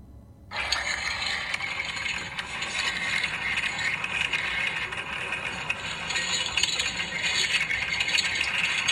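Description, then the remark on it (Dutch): A sonified recording of Earth's magnetic field, played through loudspeakers in the city of Copenhagen, Denmark: after a brief pause, a loud, dense wash of crackling, rattling and scraping noise starts abruptly and churns on steadily, with low rumbling beneath and no voices. “dit is dus inderdaad het geluidsfragment van ons aardmagnetische veld”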